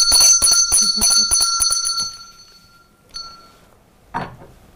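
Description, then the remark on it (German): A small hand bell, used as an opening bell, rings rapidly for about two seconds, bright and metallic, then its tone rings out and fades, followed by one more light strike and a brief soft rustle. “Dann können wir eigentlich, glaube ich, einsteigen ins Thema und die Opening Bell fehlt noch, die steht kurz hinter dir.”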